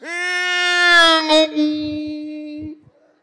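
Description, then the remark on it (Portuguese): An adult voice mimics a boy crying with one long, loud, wavering wail that holds for a few seconds, then breaks off into a couple of short sobbing catches. “O guri chorando assim, ó. Chorando.”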